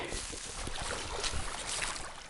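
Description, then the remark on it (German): A nature wardens' boat carrying two men in red vests approaches across the water, its steady engine drone mixed with broad rushing water and wind noise, continuous throughout the short stretch. “Da kommen die Kollegen gerade angefahren.”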